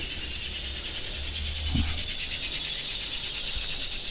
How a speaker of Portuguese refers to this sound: Olha, os pássaros concordaram aqui.